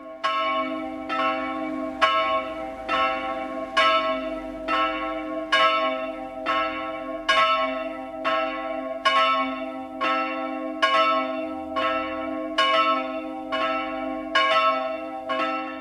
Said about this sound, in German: Bayern 1 präsentiert das 12 Uhr Läuten. Es ist 12 Uhr. Das Mittagsläuten kommt heute von der evangelisch-lutherischen St. Pauluskirche in München-Perlach.